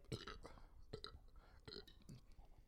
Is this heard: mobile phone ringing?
no